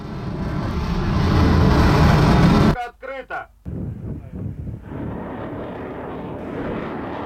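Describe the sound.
A Zircon hypersonic cruise missile launched from the White Sea toward a target in the Barents Sea, flying 450 km at eight times the speed of sound: a loud, dense roaring rush of engine noise, broken by a brief pause with a short burst of voice, then the heavy roar resumes and carries steadily to the end.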